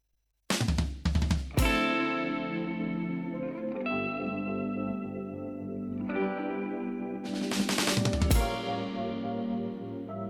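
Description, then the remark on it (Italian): An instrumental acid jazz funk intro with sustained, effects-heavy chords and steady low bass, broken twice by dense bursts of bright, noisy percussion; no voices. “In questa canzone c'è dentro …, … inglese, ma anche bellissime e importanti influenze di acid jazz e funk internazionale.”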